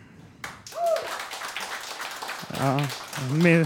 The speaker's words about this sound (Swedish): En applåd! Det har inte varit ett lätt jobb idag.